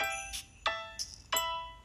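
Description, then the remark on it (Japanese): A short, bright jingle of four quick chiming notes in an even rhythm, ringing with sustained tones, a little BGM-like built-in sound effect played clearly on its own. “まあ、これちょっと BGM みたいな、まあ、効果音ですね。”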